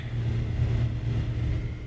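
A car engine drones steadily, its deep rumble continuous and fairly loud, as the vehicle jolts slowly along a rough, bumpy field track toward a forest. No one speaks.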